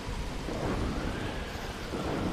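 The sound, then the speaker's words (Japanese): Low thunder rumbles and rolls beneath a dense, steady hiss of heavy rain, loud and continuous throughout with no voices. “ベートーベンの生涯は嵐の一日に似ている突如大きな影が横切り悲劇的な雷鳴がやってくる”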